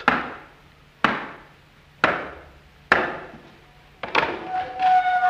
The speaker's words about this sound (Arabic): الباب اهو الباب الاخراني وادي الاربع حلقات اما خبط عليه اربع خبطات